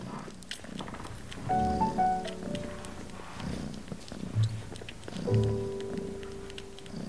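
Tiny eleven-day-old kittens mew in thin, high cries, a couple of short bursts and a longer wavering call, over a steady rumbling purr that runs throughout.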